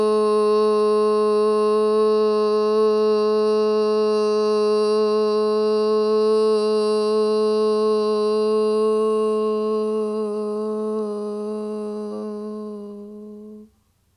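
A single voice holds a long, steady "oo" vowel on one low pitch for about fourteen seconds, exhaling after a deep breath during a relaxation breathing exercise, loud and unwavering, then trails off as the breath runs out.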